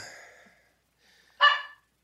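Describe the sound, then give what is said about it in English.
A single sharp dog bark rings out clearly partway through, preceded by a fainter, trailing whine-like sound and otherwise quiet surroundings. “oh, sorry my dog's barking.”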